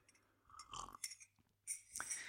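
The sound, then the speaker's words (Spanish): Quiet sipping of coffee from a glass after dinner at night: two soft slurping pulls with a faint clink of glass in between, and no one speaking. “Permitidme un sorbito de café”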